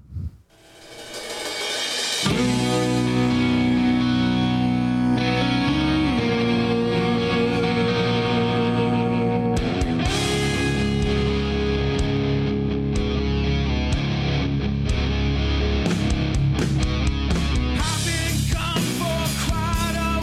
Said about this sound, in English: The band is called …, and the song is called ….